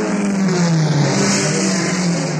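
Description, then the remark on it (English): Car engines rev and accelerate hard, a loud, continuous roar with a rising mid-pitched drone that stays steady throughout, with no voices. “Why are they going fast in those cars?”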